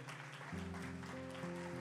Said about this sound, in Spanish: Vamos a dar un aplauso a tu abogado.